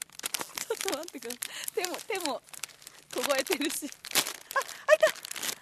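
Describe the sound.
Crisp plastic crinkling of a Karl snack bag puffed up tight with air, being shaken, handled and tugged at while being opened, in bursts of rustle and crackle running under a person's ongoing talk.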